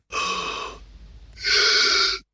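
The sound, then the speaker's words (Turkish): Two deep, noisy gasping breaths drawn in, the first lasting under a second, a brief pause, then a second strong inhalation, with no talking, demonstrating how patients in the late stages of emphysema breathe. “Alabildiğiniz kadar derin bir nefes alın. Şimdi üzerine tekrar nefes alın ve verin ama hepsini değil.”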